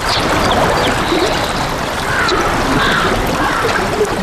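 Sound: flowing river water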